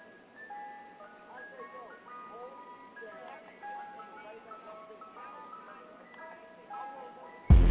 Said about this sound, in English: I know, I know y'all heard in the background. We got that that ice, ice cream, cream, truck on deck. You know what I'm saying?